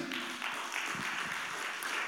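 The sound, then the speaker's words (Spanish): An audience applauds for the Lord during a sermon, a dense wash of many hands clapping at once that stays at an even, moderate level for the whole stretch, with no voices standing out. “si es eso para el Señor, no lo dé como un manco. Da un buen aplauso.”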